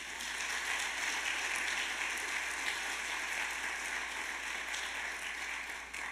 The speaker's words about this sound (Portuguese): Amém, irmãos? Amém. Aplauda o Senhor Jesus por isso.